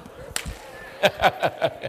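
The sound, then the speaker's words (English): Sharp hand slaps of people at a church gathering slapping their neighbors high fives ring out, a lone one early and then four evenly spaced smacks in quick rhythm, loud against a low murmuring background. “Slap your neighbor high five and tell him, I'm going to listen tonight.”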